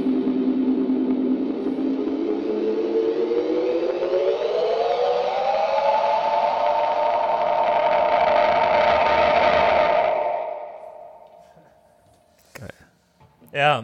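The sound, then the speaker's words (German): A delay pedal in swell mode, its echo turned up, self-oscillates: the echo feeds back into a loud, sustained howling tone that slowly rises in pitch, holds steady, then fades out, with a couple of brief clicks at the end. “jetzt kann man halt äh, das Echo, also wenn man in diesem Swell-Mode ist, ein bisschen höher drehen.”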